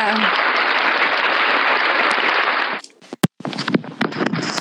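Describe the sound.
A burst of applause from a group, dense and steady for nearly three seconds, then cutting off abruptly before a voice begins talking with some clatter.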